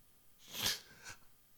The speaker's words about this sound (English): You just heard that. A little sniffle. I'm not sniffing any powder. Trust me. No, not doing that. I've been a little bit under the weather.